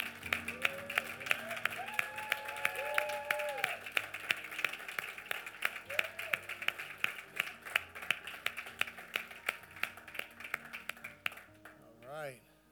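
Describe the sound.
An audience applauds mothers steadily with dense, rapid hand claps for about twelve seconds, a few voices and whoops rising over it before the clapping trails off at the end.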